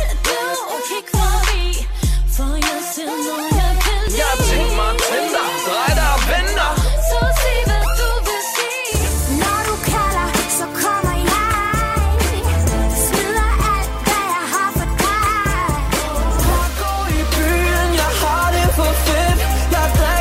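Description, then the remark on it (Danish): A loud music track plays in a studio to introduce a guest, opening with punchy, rhythmic bass hits under a melodic line, then swelling into a fuller, denser arrangement about halfway through. “Og hvem det er, jeg tænker faktisk bare, at vi hører lidt musik for at introducere ham.”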